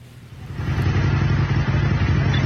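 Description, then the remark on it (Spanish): A motorcycle engine runs steadily, a loud, rumbling low drone that swells slightly after the first half second and holds through to the end, with no one talking. “aunque por favor ustedes si se suben a una moto, si usen casco, no, no sean así, échenlo.”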